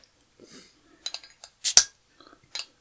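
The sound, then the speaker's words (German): A bottle cap is pried open with scissors: scattered metallic clicks and scrapes, then a sharp, loud pop with a brief hiss, followed by a few more faint clicks. “Jetzt macht er die Flasche auf.”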